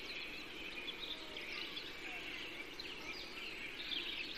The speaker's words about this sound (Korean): 오직 새들의 울음소리와 바람의 충돌질로 나뭇가지가 부딪히는 소리만이 숲의 침묵을 깨는 그늘진 빈터에 앉아 귀 기울이기.